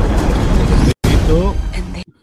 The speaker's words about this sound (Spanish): Gala que vuelve a comerse una explosión